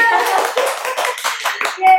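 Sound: clapping applause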